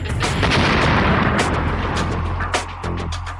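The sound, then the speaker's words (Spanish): Sustained heavy Taliban rocket bombardment of Kabul, Afghanistan, in April 1996, with repeated booming blasts and crackling gunfire, dense and loud throughout, with a low rumble underneath and no voices. “Los seguidores de Mullah Mohamed Omar acribillan la ciudad con más de 866 cohetes en solo el mes de abril.”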